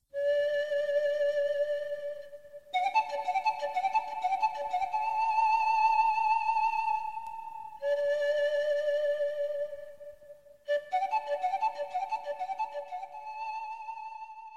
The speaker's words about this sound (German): Wir hören jetzt etwas Musik und dann werden wir weiterhören, wie die konkrete Hilfe für diese Kinder in den Projekten des Regenbogenprojektes aussieht.